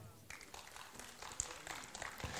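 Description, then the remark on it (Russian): A concert audience applauds the Theatre of Inner Vision, a laureate of many festivals and competitions, with a steady, dense patter of many hands clapping at once. It starts after a brief quiet moment and stays fairly soft and even throughout. “Тоже аплодисменты.”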